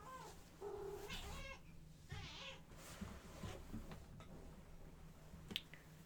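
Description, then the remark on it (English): A female cat meows twice, drawn-out harmonic cries with a rising, wavering pitch, followed by a few faint clicks and soft rustling against a low steady hum. “My cat feels the energy.”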